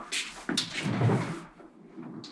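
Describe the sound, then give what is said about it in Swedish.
A small display cabinet door, used to show products to visitors at a manufacturing company, swings open with a soft creak and rattle, a brief scrape followed by a muffled thud and a faint click at the end, with no voices. “Så han öppnar dörren och ger mig en pryl.”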